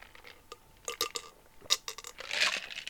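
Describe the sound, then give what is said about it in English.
Ice cubes clink and rattle inside a cup of High Noon drink, a run of sharp knocks and a brief glassy swirl near the end, with no voices. “Oh yeah, you hear that? Yeah, that's high noon in a in a cup with some ice in it because I forgot to I put it in the refrigerator.”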